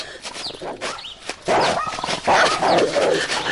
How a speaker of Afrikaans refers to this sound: Pas op daai hond.